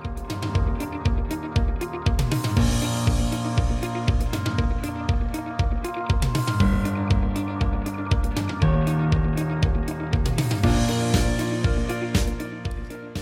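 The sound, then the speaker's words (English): Steady, full-band instrumental music with a driving beat, punchy regular drum hits and sustained melodic tones, played loud and continuous throughout with no voices. “And I'm going to give you a little bit more music right now.”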